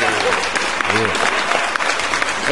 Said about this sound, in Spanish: Aplausos, muchachos. Aplausos esta noche.